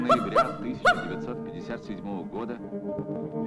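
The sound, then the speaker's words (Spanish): The dog Laika gives three sharp barks in the first second, two quick ones then a third, followed by softer, murmuring voice-like sounds for the rest of the moment. “¿Tú sabías que Laika quiere decir perro que ladra?”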